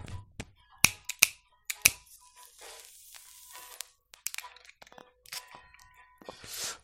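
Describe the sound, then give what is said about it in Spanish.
A Tokai kitchen lighter clicks sharply several times in an uneven rhythm, followed by softer scattered crackling and rustling noises. No one speaks. “Ah, exacto, con un pinche este, no lo ven, pero es un encendedor de cocina.”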